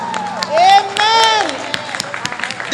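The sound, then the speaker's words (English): A church audience claps steadily while voices shout out praise to God, two loud sustained cries rising and falling over the clapping before it continues as a busy, uneven patter of hands. “Come on, clap your hands, open your mouth, and give God some shout of praise”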